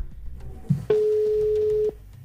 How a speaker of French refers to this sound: C'est en train de sonner